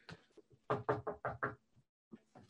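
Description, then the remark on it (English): Knuckles rap on wood five times in a quick, even sequence, fairly loud, with softer faint bumps before and after. “Knock on wood.”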